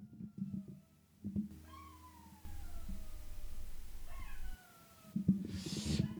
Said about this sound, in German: Der Hund heult übrigens immer noch. Wollt ihr es hören? Kleinen Moment.